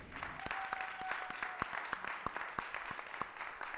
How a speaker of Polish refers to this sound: I za to wszystkim ludziom tutaj należą się gromkie brawa.